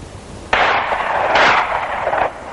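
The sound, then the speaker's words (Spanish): A sudden gunshot from men out hunting bursts out and rolls on as a long, echoing blast with a second swell partway through, fairly loud and heard alone without any voices. “Ve a su mujer acechando los disparos de Iván.”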